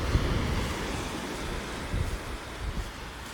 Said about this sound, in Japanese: 波の音とお話最高に癒されましたまた来ますありがとうございます湘南羨ましい